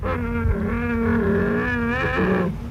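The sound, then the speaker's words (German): A bear growls in one long, loud, rumbling roar that wavers in pitch for a couple of seconds before breaking off, with no other sounds around it. “In Alaska leben Elche und viele Schwarz- und Braunbären.”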